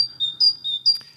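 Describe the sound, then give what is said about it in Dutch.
A great tit calls with a few thin, high-pitched notes in quick succession, clear, ending in a brief sharper chirp with no voices. “Maar dit is de koolmees. Dit is de roep van de koolmees.”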